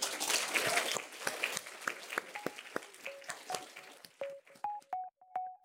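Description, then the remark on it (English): An audience applauds to thank the panelists after a panel discussion, dense and full at first, then thinning to scattered claps, while a few short electronic tones chime in toward the end. “And so if you'd like to join with me in thanking them.”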